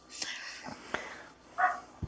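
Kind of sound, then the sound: animal, dogs barking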